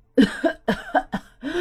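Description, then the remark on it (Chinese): A storyteller imitates a character's fit of coughing in a story: a quick series of five or six rough, fairly loud cough bursts in an uneven rhythm, with no words spoken. “哦，艾美丽，艾美丽， 那个家伙咳嗽着说：”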